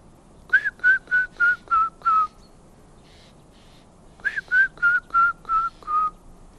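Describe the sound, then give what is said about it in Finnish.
A person whistles an imitation of a grey-headed woodpecker call: two clear runs of about six evenly spaced notes, each run gently falling in pitch, separated by a brief pause. “viheltäminen on sitten toinen tavallinen tapa, niin olisikohan joku tämmöinen harmaa päätikka.”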